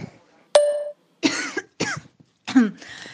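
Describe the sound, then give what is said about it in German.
A person coughs several times in a row: a few harsh, raspy bursts with short pauses between them, and no talking. “Ich huste, schlafe und Netflixe mich so durch den Tag.”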